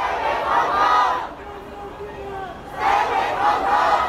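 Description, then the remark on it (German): A large crowd at a protest march chants in rhythmic bursts, loud swells of many voices shouting the English slogans "Stand with Hong Kong" and "Fight for Freedom", dropping briefly to a murmur of babble before surging again. “die Aufnahme von einem Protestzug.”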